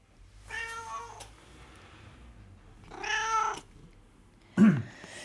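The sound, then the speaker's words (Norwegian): Two drawn-out cat meows, a few seconds apart, the second rising and falling in pitch, followed by a short low thump. There is no talking over a quiet background. “Spørsmål fem, og da er ja ett mjau og nei to.”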